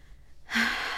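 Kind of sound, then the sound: human body sound, sharp inhale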